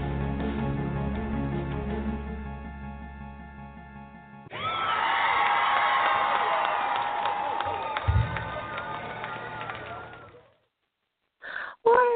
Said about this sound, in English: I always crack up when I hear all the applause. You know, I'm sitting here in my studio by myself, right?